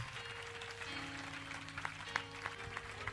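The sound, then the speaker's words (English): A church audience claps hands over a dense crowd wash, the claps settling into a steady rhythmic beat of sharp strikes, with low sustained organ-like tones humming underneath. “it is paying you that you are clapping your hands”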